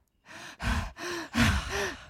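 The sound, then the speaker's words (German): A voice imitates heavy breathing into a telephone: five loud, raspy breaths in a steady rhythm, some with a slight moaning tone, and no talking. “vielleicht, vielleicht, sollte ich einfach Leute anrufen und ins, in, ins Telefon atmen.”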